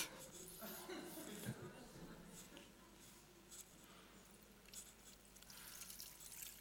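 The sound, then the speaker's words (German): Water is poured into a glass that is already full in a steady, quiet trickle with a few splashy bursts, with no talking over it, as a demonstration during a church service. “Ich habe euch noch Wasser mitgebracht.”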